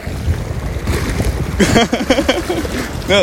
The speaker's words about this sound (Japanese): すごい波が波がすごいよ